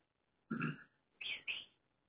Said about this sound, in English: This is very, very TMI. My burp just tasted like cauliflower because I was eating my cauliflower with that um tzatziki dip.